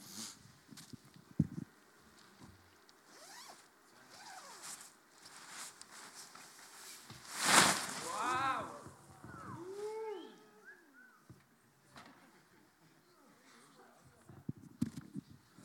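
Fabric rustles and crinkles as a pop-up beach shelter is unpacked on a beach, then a sudden loud whooshing flap as it springs open, followed by softer settling rustles and some voices.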